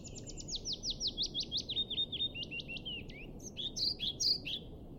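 Birdsong over a steady old-growth forest hush: a rapid series of bright, descending chirps repeats for about three seconds, then a higher, buzzier warbling phrase follows, all above a soft low rustling background.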